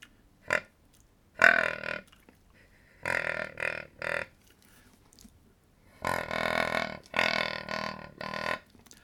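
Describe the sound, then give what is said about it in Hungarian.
A string of deep, raspy wild boar grunts blown on a game call, a whistle-type call blown at its end, coming in short bursts, then a longer run of rough grunting near the end, with no talking. “Jó, először nézzük meg, akkor hallgassuk meg, hogy hogyan szól a vaddisztónak a röfögő hangja.”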